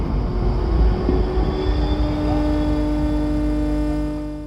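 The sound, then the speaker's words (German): A steady electrical hum with layered tonal drones and buzzing harmonics, loud, swelling slightly as a tram arrives; the tram's old analog electromagnetic frequency fields heard through induction rather than as ordinary acoustic sound. “Also Straßenbahnen sind sehr ergiebig, was elektromagnetische Fahrten angeht.”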